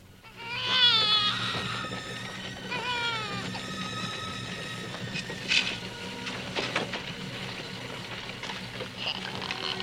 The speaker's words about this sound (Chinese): 这时，克拉苏突然听到了。婴儿的哭声